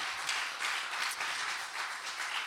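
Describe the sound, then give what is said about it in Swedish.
A concert audience applauds steadily for the audience's chairman who played piano, many hands clapping into a dense, continuous patter that holds at an even level throughout, with no voices over it. “Ja, en extra applåd för det.”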